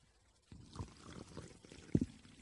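Water is poured steadily for about two seconds, a gurgling stream with a brief louder splash near the end, and no voices.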